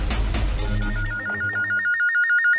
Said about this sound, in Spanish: Al momento que estaba alcanzando la siesta, me suena el teléfono, un número desconocido